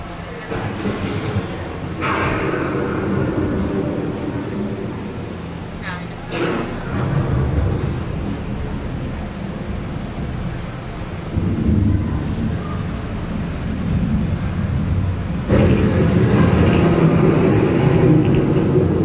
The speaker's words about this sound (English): Our journey begins as dramatic and sudden changes are sweeping over the land. The approaching storm may seem violent and destructive to us, but to nature, it's a new beginning in the cycle of life.